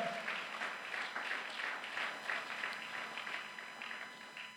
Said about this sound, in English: Come on, give a clap offering unto God.